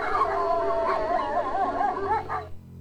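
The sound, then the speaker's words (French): Several wolves howl together in a sustained, wavering chorus, their long pitched cries overlapping and rising and falling before fading out abruptly near the end. “Dans la meute, on est entre 8 et 20 loups.”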